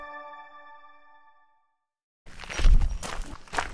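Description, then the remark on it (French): A single ringing chime fades into silence. Then the bells of a goat herd clank and tinkle irregularly over a busy shuffle of hooves in the small hamlet of Gars, France. “Dans le petit hameau du Gars, on est accueilli par le tintement des cloches d'un troupeau de chèvres.”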